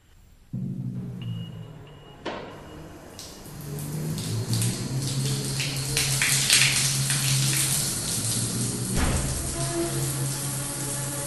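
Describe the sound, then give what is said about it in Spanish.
Cold shower water runs in a steady, dense hiss after a brief quiet start, splashing and swelling slightly louder midway, with no voices; psychiatric inpatients line up for the showers in the morning. “En la mañana los internos de psiquiatría van en fila hacia las regaderas. El agua fría hace que tiriten sus cuerpos mientras esperan a ser secados por la asistente.”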